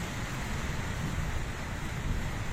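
Strong wind roars steadily during an electrical storm in San Luis Río Colorado, a dense, rumbling rush with gusty low buffeting, continuous at an even loudness throughout. No voices are heard.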